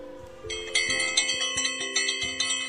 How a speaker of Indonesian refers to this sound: Bel berbunyi pertanda waktu perayaan HUT RI segera dimulai.